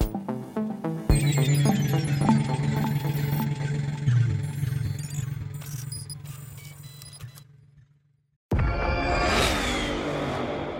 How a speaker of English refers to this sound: Did you hear that? That's what an estimated 500 horsepower sounds like.